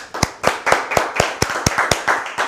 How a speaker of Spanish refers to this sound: Así que sean todos bienvenidos. Un fuerte aplauso.